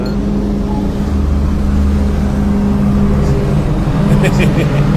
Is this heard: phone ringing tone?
no